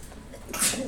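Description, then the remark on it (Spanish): A person sneezes once, a sudden sharp burst with a hissy, airy edge that rises out of quiet room noise and trails off quickly. No one speaks. “Salud.”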